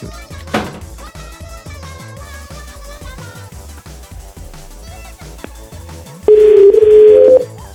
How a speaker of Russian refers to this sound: Смотрите, как я набираю телефон, что он просит меня обратиться в службу поддержки.